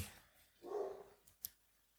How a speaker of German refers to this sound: Jetzt bellt im Hintergrund unser Hund.